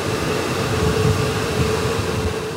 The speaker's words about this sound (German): Wenn der Ingenieur in seine Kamerahalle ging, nahm er zunächst eine Dusche der besonderen Art. Hier machen wir eine Luftdusche, damit wir schön sauber sind.